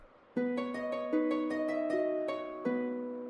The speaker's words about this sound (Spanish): Tampoco, eso es un arpa.